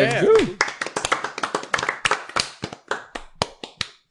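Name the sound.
small group clapping hands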